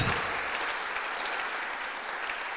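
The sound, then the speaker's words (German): Sustained audience applause for the teams and volunteer helpers, a dense wash of many hands clapping at a steady, even level throughout, with no voices standing out. “können wir einfach mal all den Teams und all den freiwilligen Helfern, die hier sind und die all das möglich machen, mal einen riesen Applaus geben und Danke sagen, weil es absolut der Wahnsinn ist, was ihr macht, was ihr aufbaut.”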